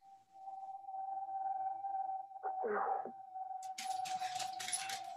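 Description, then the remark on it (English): A theme tune plays: a steady electronic tone hums throughout, a short swell arrives midway, then bright, dense shimmering percussion fills the last second and a half. No one speaks. “So I'm going to cue the theme music.”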